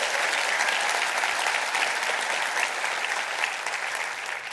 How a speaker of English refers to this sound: Clap your hands and rejoice to that in the name of the Lord.